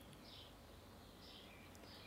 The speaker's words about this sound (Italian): il silenzio con gli uccellini come quelli che sento adesso, è un silenzio che mette insieme due sentimenti, un sentimento di gioia di questa felicità della primavera